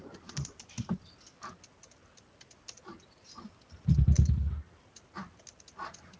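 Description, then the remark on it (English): Quiet typing of show notes on a computer keyboard: irregular bursts of soft key clicks with short pauses, briefly joined by a louder low thump or rumble partway through. “Sorry, I'm busy typing.”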